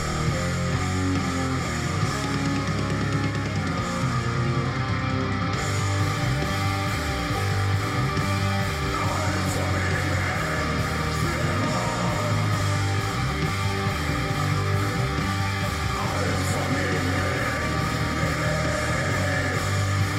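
A black metal song plays loudly and continuously, a dense wall of distorted guitars and pounding drums with harsh, yelled vocals, filling the whole stretch with no talking over it.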